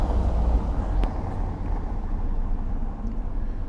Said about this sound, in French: Et les bruits de voiture, je suis désolé.